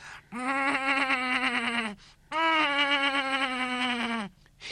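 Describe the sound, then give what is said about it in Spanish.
A calf bleats twice as it flees from an attacking jaguar, each call long, loud and wavering, with a short pause between them. The cries stand alone with no talking. “El ternerito huyó berreando.”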